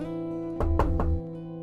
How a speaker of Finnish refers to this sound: Joku koputti oveen.